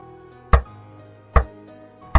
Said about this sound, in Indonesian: Jadi saya mendengar orang yang mengetok tembok pas dari kamar sebelah saya. Saya cerita ini merinding juga ingat kalau kejadian tersebut. Diketok tiga kali.